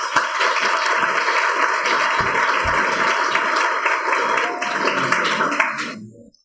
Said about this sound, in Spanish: Pues sin más les pido un aplauso y le cedo la palabra